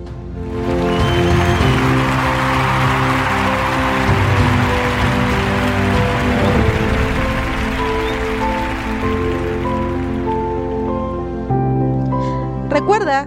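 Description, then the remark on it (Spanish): Steady applause from many hands, a dense crackling clatter that lasts about twelve seconds over sustained, droning musical tones, then thins out as the music continues alone. “Por eso, estos aplausos van para ti.”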